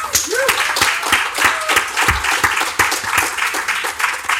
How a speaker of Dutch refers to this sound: Mag ik applaus